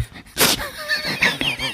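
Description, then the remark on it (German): A human speaker mimics a dog with a quick breathy burst followed by a string of high, whiny yelps and whimpers, fairly loud, with no words spoken. “wo ich vermute mal kein echter Hund, sondern ein durchaus menschlicher Sprecher eh, eh so redet, wie ein Mensch redet und dazwischen immer so macht, damit es klingt wie ein Hund.”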